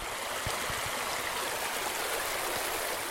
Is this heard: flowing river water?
yes